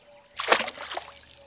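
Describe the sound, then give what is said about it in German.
A single splash into a river, a sudden burst that quickly fades into softer sloshing and dribbling as the water settles. “Zum Glück war da der Fluss. Und da hat er sich reingekullert.”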